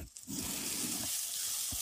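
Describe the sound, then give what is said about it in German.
Steady sizzling of tomato paste and two handfuls of whole walnuts roasting in a corner of a pan, a continuous bright hiss with soft stirring scrapes and a low thump near the end; no one speaks. “So, und dann röste ich jetzt hier das Tomatenmark in einer Ecke der Pfanne ein bisschen an und die Walnüsse ein bisschen, damit sie ihr Aroma entfalten.”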